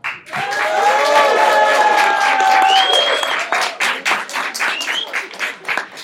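An audience votes by noise for a favourite historical figure, bursting into loud cheering and whooping, with high shouted voices over a dense wash of clapping that keeps going, then thins into scattered, uneven claps toward the end.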